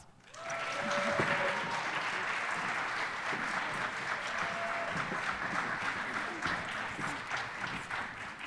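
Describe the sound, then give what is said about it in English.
A crowd at a performance applauds the Durham Public Schools all county students, steady, dense rapid clapping that starts quickly, holds at an even level for several seconds, then thins slightly toward the end. “At this time, will you please join me in recognizing our Durham Public schools, all county students with a round of applause.”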